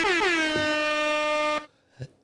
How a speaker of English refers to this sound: I'll hit that with the air horns.